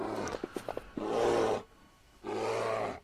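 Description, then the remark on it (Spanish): A creature growls loudly in two long, rumbling bursts separated by a short pause, preceded by a few sharp guttural snorts, powerful with no talking. “Escuchas como, como gruñe de fuerte y también sentís como te arranca medio brazo o por lo menos la fuerza que tiene descomunal”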